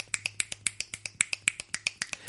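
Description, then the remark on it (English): Fingers click over and over in a quick, steady rhythm, about seven crisp snaps per second, sharp and close, with a faint low hum underneath and no voices. “You cannot click your fingers or laser tag.”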